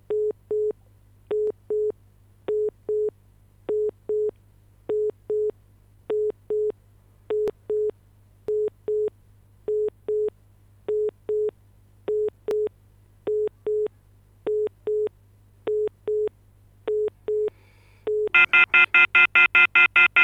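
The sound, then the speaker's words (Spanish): A phone line tone repeats as steady paired beeps for about eighteen seconds, a busy-sounding pattern with a low hum beneath, then ends in a short burst of brighter electronic tones, as a call is attempted to a WhatsApp group. No one speaks. “Llama si puedes al grupo de WhatsApp.”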